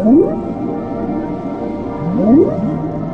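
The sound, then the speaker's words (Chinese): Whale calls rise in pitch as low moaning upsweeps, one at the start and a pair near the end, over a steady low underwater rumble. “阿拉斯加海上，一头鲸鱼可能正在夕阳下跃出水面”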